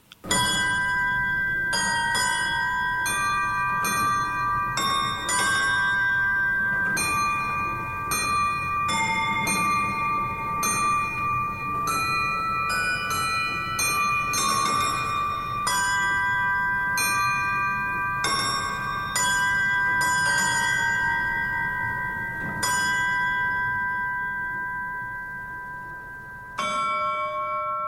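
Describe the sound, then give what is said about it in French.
The carillon bells of Saint-Jean cathedral ring out a melodic theme, with a steady series of struck tones overlapping into a rich, resonant wash, loud, with no voices, before a final note fades. “je lui dis, ce serait pas mal qu'on utilise la musique du carillon, le thème de la musique du carillon. On l'écoute tout de suite.”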